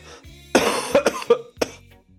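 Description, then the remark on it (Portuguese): A person coughs several times in quick succession, a harsh burst followed by a few shorter, sharper coughs, with no talking. “A tosse tá aí, hein, galera.”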